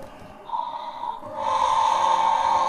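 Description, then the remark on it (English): A young child imitates a T. rex roar, a breathy, raspy growl that starts softly and then swells louder and rougher for its final second. “What noise does the T Rex make?”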